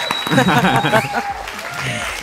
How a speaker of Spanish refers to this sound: aplausos, editor, por favor, aplausos.